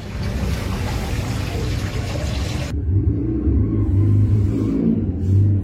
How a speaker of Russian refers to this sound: Когда весь дом возвращается с работы, и все идут, очевидно, в ванную, звук вот такой, как водопад.